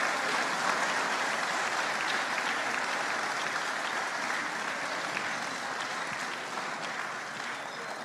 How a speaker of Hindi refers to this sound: मुझे बड़ा अच्छा लग रहा है कि दर्शकों में कुछ लोग बाकायदा खड़े होकर इनके लिए तालियां बजा रहे हैं ये सम्मान देखिए जरा ये सम्मान जो इन बेटियों को यहाँ के लोग दे रहे हैं